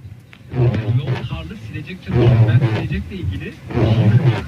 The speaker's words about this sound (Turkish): Bak sadece şu silecek silecek dostumuz da aramızda.